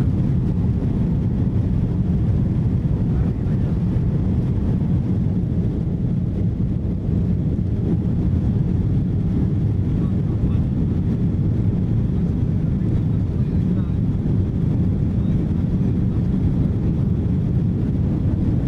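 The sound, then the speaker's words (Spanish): A loud, steady low roar of airplane engines during takeoff from San Salvador, El Salvador, fills the whole stretch, a dense rumble with a windy hiss on top that never lets up, heard from inside the plane as it lifts its nose and leaves the ground. “Sí, ya, ya calienta motores. Sí, ya veo el paso de cebra, este gigante que hay a la salida. Se alinean las, las luces y 3, 2, 1 y arriba, vamos.”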